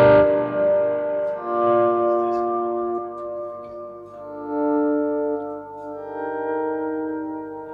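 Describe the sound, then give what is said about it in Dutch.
A sustained guitar chord played through a spacey reverb pedal effect, its layered harmonic tones shimmering and swelling over about eight seconds with a long, ambient tail and slight distortion, no voices present. “En, en voor de rest, voor, die, eh, voor dat spacey ding gebruik ik dan altijd die ethisch hole.”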